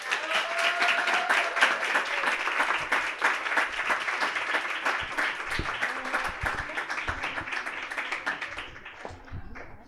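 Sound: audience applause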